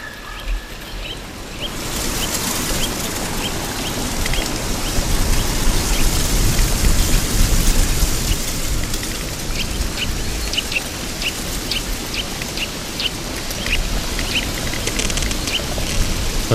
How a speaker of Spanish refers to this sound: Esto no es solo sonido de hojas, aquí hay ramas. Aquí hay y, crujen los troncos. Bueno, este es el viento otoñal, este viento desapacible que sacude las hojas, barre los, como si abriéramos la ventana y la casa se ventilara,